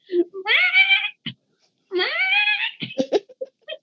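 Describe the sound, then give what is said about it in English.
A person imitates a cat, acting out the character Briar turned into a cat, with two long, drawn-out meows, each rising then sliding down, followed by brief laughter and scattered short vocal sounds. “Briar gets turned into a cat and just walks around going,”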